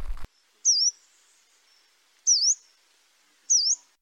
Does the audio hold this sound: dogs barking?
no